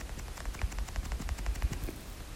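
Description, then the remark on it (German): Rapid bursts of video game gunfire from a mythic player character crackle in a quick, uneven rhythm, with several sharp shots over a low rumbling bed of game sound, moderately loud and with no talking. “Seine Schüsse gehen manchmal so ganz leicht nach, zur Seite, habe ich das Gefühl.”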